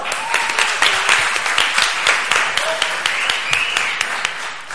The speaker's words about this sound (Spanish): Un aplauso, por favor.